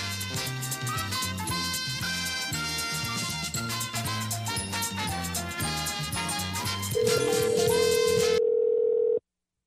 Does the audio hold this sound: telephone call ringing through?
yes